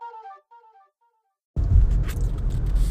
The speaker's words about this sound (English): It's Friday afternoon. I'm sitting in traffic.